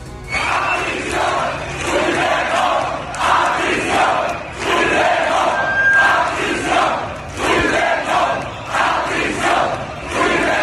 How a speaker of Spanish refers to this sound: Las protestas se llevaron a cabo en otros puntos del mapa como Barcelona, Valladolid o Sevilla, donde los manifestantes gritaron esto.